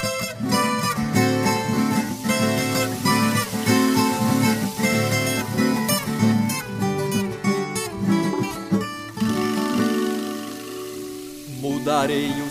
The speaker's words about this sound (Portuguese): É um refrão sugestivo para você cantar, entoar né, e celebrar o advento também. Temos que viver essas oportunidades. Vamos lá ouvir e nos encantar e aprofundar a espiritualidade com este belíssimo refrão.